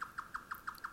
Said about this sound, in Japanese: この機械音を聞いたら、これはあの、非常音ではなく、ちゃんとした鳥の鳴き声ですよね。ヨタカという鳥です。